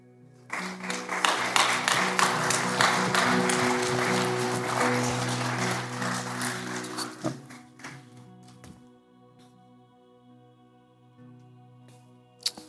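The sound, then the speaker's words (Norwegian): A church audience applauds a preacher's message in a dense, steady stretch of many hands clapping for about seven seconds, then fades away. A sustained low musical tone holds underneath and lingers after the clapping stops. “Skal vi gi en applaus til?”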